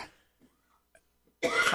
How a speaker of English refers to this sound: How long oh, did you get me. this cough over? It's been like three weeks. No, it's been about uh, six years now. I've been coughing, uh, but uh, it, it, can't be anything terminal, or would have killed me by now.